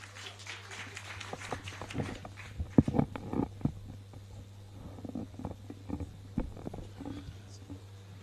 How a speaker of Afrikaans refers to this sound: ons gee hom 'n lekker hande klop.